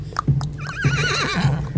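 animal, horse neighing

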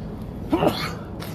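human body sound, sneeze

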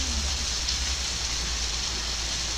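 nature, heavy rain

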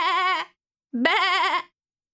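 animal, sheep bleating

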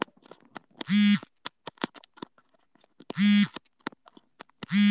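household object, mobile phone vibrating

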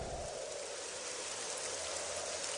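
nature, rain falling

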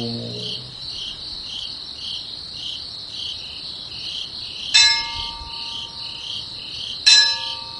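insect, insects chirping

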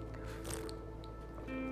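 food or drink, sipping coffee

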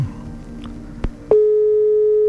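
signal or alarm, phone line tone

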